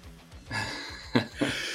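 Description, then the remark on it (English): A person imitates heavy breathing, a couple of loud, breathy huffs with noisy airy rushes, standing alone without talking. “I'm just breathing um, heavy behind him.”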